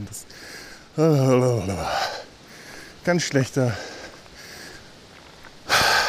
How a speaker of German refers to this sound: vergesse das immer, dass es hier in der alten Heimat hügelig ist. Wie dumm von mir, nicht wahr? sollte man meinen, dass man sowas nicht vergisst. Das tue ich auch nicht, aber ich vergesse immer, dass ich dann das Keuchen anfange, wenn ich dann rede.